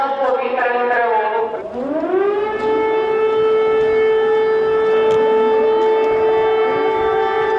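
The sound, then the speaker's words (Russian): A loud air raid siren wails steadily at Poltava railway station in the middle of the night as a train arrives, its tone dipping and then rising to a long sustained howl that fills the whole recording, with a faint voice audible early on. “Посреди ночи Полтавский вокзал встречает поезд с сиреной.”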